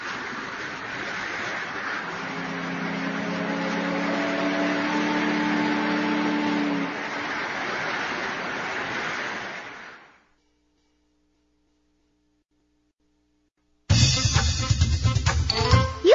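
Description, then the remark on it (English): A steady rush of water and engine noise, like a boat moving along, with a low droning hum in the middle that fades out before a brief burst of other sound starts. “You can go on a boat.”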